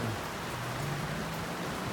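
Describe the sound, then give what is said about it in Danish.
Steady rain falls continuously, a dense even patter of drops hissing across a surface, moderately quiet and unchanging throughout, with no voices. “vi ved jo ikke, altså, vi ved jo ikke noget, altså hvor lang tid det forestiller det her regn her.”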